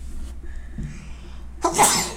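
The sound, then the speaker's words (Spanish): A single loud sneeze bursts out near the end, sharp and breathy, after a stretch of quiet room tone with only faint low background hum. “Uy, salud.”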